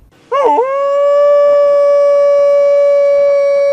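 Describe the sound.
A US Army veteran imitates a wolf's howl for wolfdogs, starting with a wavering yelp that settles into one long, loud, steady note held for several seconds, with no talking.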